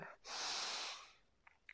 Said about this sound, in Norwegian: Puster ned i magen.